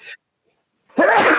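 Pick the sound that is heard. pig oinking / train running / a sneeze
a sneeze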